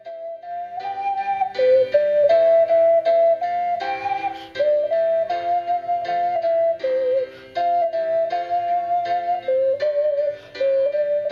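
An ocarina plays a slow, smooth melody in a pure, breathy mid-high tone, its held notes rising and falling over a soft backing accompaniment, with no talking.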